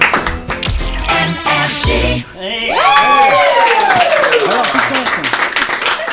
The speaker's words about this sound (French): Eh ah c'est pas mal, on applaudit.